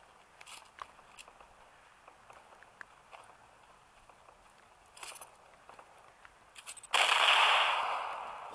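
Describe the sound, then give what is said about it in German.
Scattered, fairly faint sharp cracks of video game gunfire pop at irregular intervals, then a loud, sustained rushing hiss bursts in near the end and slowly fades. No one speaks. “Boah, da sind Schüsse.”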